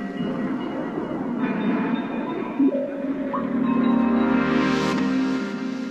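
An instrumental music track of sustained, droning tones over a rumbling low end, with a few shifts in pitch partway through; loud and continuous, with no voices.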